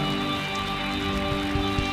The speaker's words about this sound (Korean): 우리를 사랑하시는 만큼 주님께 영광과 감사의 박수 올려드립시다.